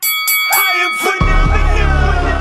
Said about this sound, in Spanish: Así que que suene la campana de boxeo.